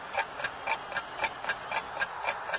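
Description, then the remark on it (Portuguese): A clock ticks steadily in a quick, even rhythm, about ten crisp clicks alternating slightly in pitch like tick and tock, clear over a faint background hiss. “O relógio corre veloz, feito uma arrancada de Robinho.”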